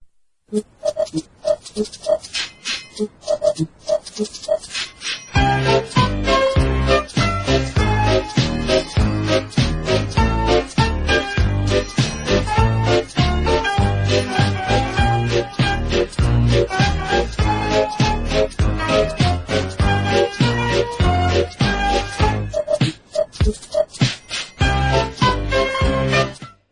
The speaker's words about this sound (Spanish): Bueno, eh, como habéis escuchado, esta música es muy divertida, ¿vale? Es Thomas de Tank Engine.